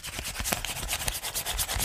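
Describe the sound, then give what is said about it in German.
Scratchy scribbling on paper, a quick run of rough, rasping pen strokes repeating in an uneven rhythm for about two seconds, with no talking over it. “das ist wie wenn ich sage, ich muss einen Gag aufschreiben, dann mache ich so.”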